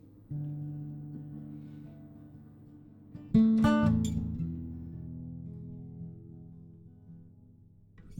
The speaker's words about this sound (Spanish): El corte número 8 de ese disco se llama …